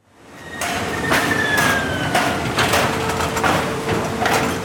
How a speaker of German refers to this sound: So klingen Kühlschränke. Kühlschränke in Einzelteile, bevor Menschen und Maschinen sie zusammenbauen. Bei Liebherr am Rand von Plovdiv bauen sie 4000 Geräte pro Tag, brauchen mehr als 2000 Menschen dafür.